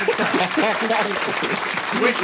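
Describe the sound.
Steady applause fills the whole stretch, a dense wash of clapping that stays loud throughout, with voices calling out and cheering underneath it.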